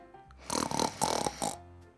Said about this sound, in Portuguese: O ronco era tão alto que ninguém conseguia dormir.